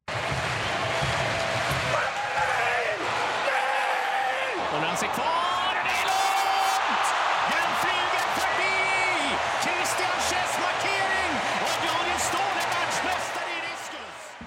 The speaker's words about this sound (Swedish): Det är lite eh. mäktigt med, man, hör, eh, man hör att publiken ser att det är ett guldkast. Ja. Det, det är lite mäktigt på något sätt. Ja. Jublet som skapas där